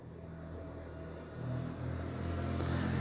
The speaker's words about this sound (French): remonte en voiture je démarrai